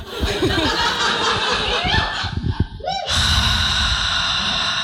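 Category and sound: human body sound, deep breathing exercise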